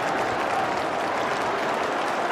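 Steady, dense applause from a large crowd at a horse racecourse as the horses reach the finish line, a continuous wash of many hands clapping at an even, fairly loud level with no voices standing out.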